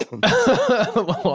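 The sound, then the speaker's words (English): A voiced mock cough imitating the bank name Wachovia: one person produces a short, throaty, cough-like burst that trails into a drawn-out, wordlike vocal sound, loud with no other noise. “Sorry, the, the bank that sounds like a cough.”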